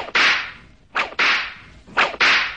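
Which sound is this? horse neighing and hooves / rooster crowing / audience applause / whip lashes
whip lashes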